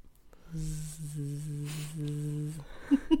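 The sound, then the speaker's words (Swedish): A person imitates a mosquito with a steady, nasal, droning buzz held for about two seconds with a brief dip midway, followed by a couple of short breathy bursts. “varenda jävla natt när jag går och lägger mig, släcker lampan, lägger mig på kudden, så bara hör jag det här jävla ljudet av de här jävla myggorna och jag får, alltså jag får typ panik i kroppen.”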